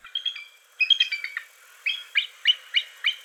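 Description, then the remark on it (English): A bald eagle's thin, high chattering call: a quick stuttering run of squeaky notes, then five evenly spaced piping chirps, clear with no other sounds. “A bald eagle actually sounds like a. It sounds really weak and weird, and I'll insert that here.”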